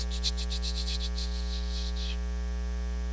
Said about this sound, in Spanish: Las estrellas en la noche brillando tan bonito, los grillos, no, sé cómo se me olvidó, pero nomás oyen los grillos.